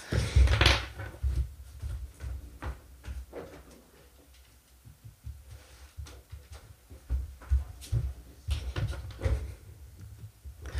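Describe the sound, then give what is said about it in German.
A room door is opened and closed to let a cat in, with a series of soft clunks, knocks and shuffling movement; no one speaks. “Und ich, mach, ich muss kurz meine Katze reinlassen, weil die Zimmertür ist zu und die zuckt gerade aus vor der Tür.”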